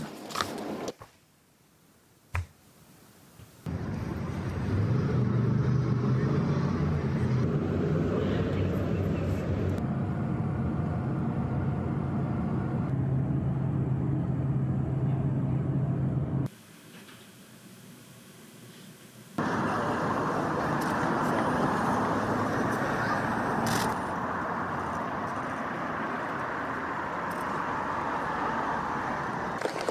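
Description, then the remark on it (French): A minute of silence observed at Big Ben in the evening, marking the start of Queen Elizabeth II's funeral proceedings: a steady wash of hushed outdoor crowd and city ambience with a faint low hum, briefly dropping quieter mid-clip before the murmur returns. “Je vous propose euh, d'écouter cette minute hier soir, minute de silence Big Ben.”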